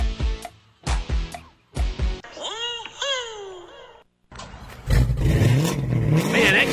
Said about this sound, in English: car sounds good. Oh, you know, it's just that Carnage exhaust I got at Troy's Muffler.